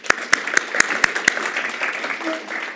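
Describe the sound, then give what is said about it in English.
A brief, sparse round of applause for one of the church's elders as she is invited up: about six sharp, evenly spaced claps in quick rhythm, then the clapping fades into a soft murmur of crowd noise and indistinct voices. “you can give her a hand if you want to.”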